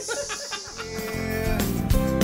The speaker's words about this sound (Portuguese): É o que, galinha?